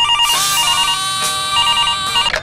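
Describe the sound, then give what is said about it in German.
A telephone rings with a bright, warbling electronic trill, repeating in quick bursts. Loud, with no voices. “Hier ist das berühmteste tägliche Telefongespräch des Landes.”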